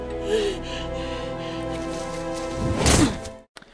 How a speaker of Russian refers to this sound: Вы слышали звук расколовшейся грудины. Именно потому, что шприц с довольно толстой иглой он направил себе ровно на грудину.